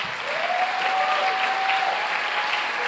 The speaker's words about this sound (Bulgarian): О, ръкопляска, ако наистина вярваш.